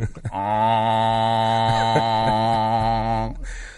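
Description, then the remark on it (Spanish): A voice imitates a bagpipe drone starting up: a short sputtering onset, then a steady, loud, buzzing hum held for about three seconds before cutting off abruptly. “yo, yo, solo puedo hacer imitar el sonido del roncón cuando arranco una gaita.”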